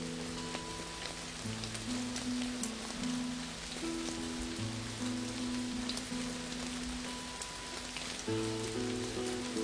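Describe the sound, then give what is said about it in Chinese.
Steady rain hisses without pause, a dense wash of patter that swells slightly louder near the end, with a low layered hum running underneath and no voices. “可我很快知道，我没有睡着，因为雨声还很清晰，并变得稍微响了一些。雨大了，我想自己幸好是醒着的，能够捕捉和分辨出这差点错过的变化。”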